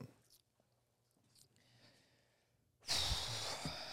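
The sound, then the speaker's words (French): A small, quiet sip of a drink with faint mouth and swallowing noises, followed by a sudden loud, breathy exhale that lasts to the end. “J'ai besoin de boire plus pour ah, répondre ça. vas une petite gorgée, une petite gorgée.”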